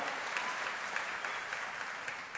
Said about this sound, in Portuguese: Glória a Deus. Recebe essas palmas no seu trono aí, Jesus. Glória a Deus, aleluia.